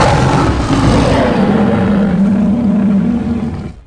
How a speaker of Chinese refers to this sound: 又是一阵咆哮，直接让水兵退后了几步。